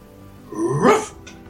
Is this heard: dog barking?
yes